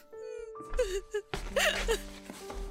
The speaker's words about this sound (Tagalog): Umiiyak na naman si mama sa kusina. Puntahan ko na nga siya doon.